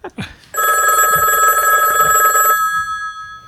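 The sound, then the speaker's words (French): A telephone rings once, a loud electronic bell trill lasting about two seconds before cutting off, followed by a quiet moment; a brief murmur precedes the ring. It is the phone line of We Are Malherbe, ringing before its answering machine message plays. “Et il se trouve que le répondeur de We Are Malherbe a un compteur plus garni que le compteur de but de Malik Chukunte en L1 puisqu'il affiche le nombre de 1.”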